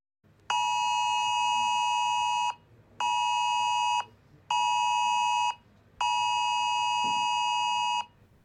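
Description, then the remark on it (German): A loud, piercing Cell Broadcast emergency warning tone, sent to mobile phones together with a hazard alert, sounds in four long bursts of about one to two seconds each, separated by short gaps, harsh and insistent, with no voices. “Das ist nämlich der Warnton, der zusammen mit einer Gefahrenmeldung per Cell Broadcast auf die Handys geschickt werden kann.”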